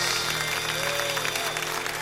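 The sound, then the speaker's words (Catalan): Dense, steady applause after a song on the Mister Music programme fills the whole stretch, a continuous crackle of many hands clapping at an even loudness with no clear individual claps standing out. “Amb aplaudiments.”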